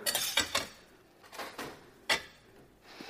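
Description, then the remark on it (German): Metal cutlery clinks and clatters against dishes in several short bursts, moderately loud, with quieter rattling between the sharper knocks. “Hier ist Besteck.”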